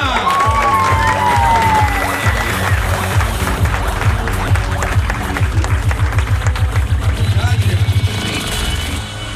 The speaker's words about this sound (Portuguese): salve de palmas!